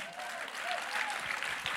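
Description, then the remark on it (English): A crowd applauding for themselves, a dense, even wash of many hands clapping at once with no pauses, holding a consistent loudness throughout. “Yes, clap for yourselves.”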